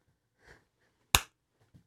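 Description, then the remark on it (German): A single sharp hand clap rings out on its own, bright and sudden, with only faint soft rustles before and after. “geklatscht, ganz viel geklatscht.”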